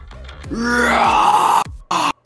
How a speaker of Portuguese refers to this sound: E ele começa, começa a vir um grito do, do, do abdômen dele e ele dá um grito.